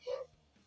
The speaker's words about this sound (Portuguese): Peço desculpas pelos latidos, mas meus cachorros estão loucos com essa quarentena.